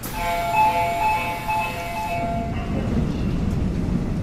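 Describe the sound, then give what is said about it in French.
A crowded morning subway train ride in Seoul, South Korea: a sustained melodic chime rings over steady rumbling for a couple of seconds, then gives way to loud, continuous rolling train noise. “Le matin, en plein cœur de Séoul, les transports sont souvent trop bondés pour réussir à sauter dans une rame de métro ou un bus.”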